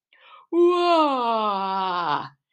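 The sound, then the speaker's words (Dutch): A voice imitates the big yawn of a slender black-and-white dog as it sits down: a short breathy intake, then one long, loud, drawn-out vocal groan that slides steadily downward in pitch for nearly two seconds before fading. “Met een grote geeuw ging hij zitten”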